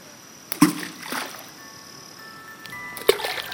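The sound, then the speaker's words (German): Someone throws stones into water one after another: two crisp splashes with a softer one between them, fairly quiet, with a faint, steady background tone underneath. “Ich muss erstmal ein paar Steine ins Wasser schmeißen, weil das so schön klingt.”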